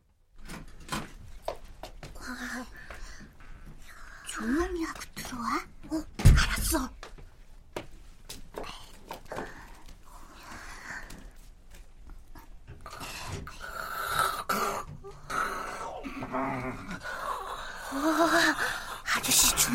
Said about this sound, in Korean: 코를 심하게 골고 입에선 하수구 냄새가 나는 우리 아빠의 저 한심한 모습을. 와, 아저씨는 역시 코 고는 소리도 남자답다.